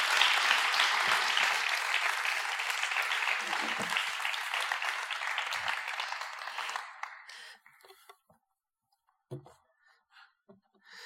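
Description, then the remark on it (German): A crowd claps steadily with dense, sustained applause for about seven seconds, then it fades out quickly, leaving a few scattered claps and quiet background noise. “Wir geben euch einen großen Applaus.”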